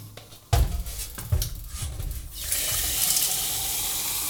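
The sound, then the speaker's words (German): A few hard plastic knocks and clunks give way to a steady, hissing rush of tap water pouring into the water tank of a Senseo coffee machine, which still held a little water, rising in level toward the end as the tank is filled to make coffee. “Ich beginne mit dem Senseo-Tank. Der muss natürlich voll gemacht werden.”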